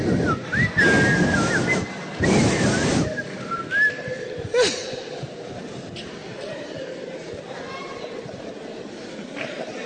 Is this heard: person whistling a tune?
yes